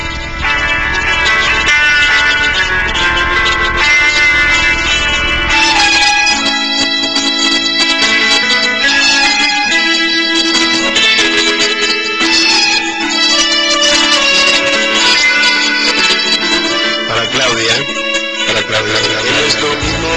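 A loud, continuous sung pop song plays throughout, a home-recorded cover of a vallenato-pop song made as a tribute, a lead voice carried over bright, layered accompaniment.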